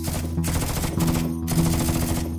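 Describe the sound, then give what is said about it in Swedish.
Rapid twin-barrelled machine-gun fire from a Swedish armoured car rattles out in loud, sustained bursts, with brief breaks between volleys, harsh with no voices, outside the post office in central Elisabethville. “I en svensk pansarbil, beväpnad med kulspruta, sitter Ernst Turdin utanför postkontoret”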